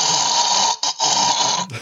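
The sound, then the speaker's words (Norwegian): A person imitates the snoring breath that a large part of the population makes at night when the head tilts back, the mouth opens and the tongue falls back: loud, harsh, rasping noises, one long rattling pull, a short break, then another sustained rasp that trails into a rougher burst. “Og Det fører til at eh, en stor del av befolkningen puster sånn her om natta.”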